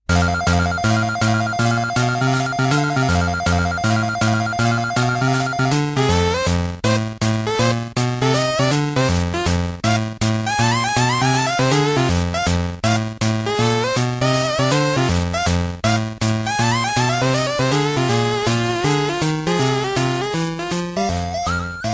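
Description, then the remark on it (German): A bright, bleepy chiptune track from the second Turtles Game Boy game, the track that plays when the pause button is pressed, plays loudly and steadily for the whole stretch, with a busy square-wave melody over a bouncing bass line and no voices. “Das ist aus dem zweiten Turtles Gameboy-Spiel.”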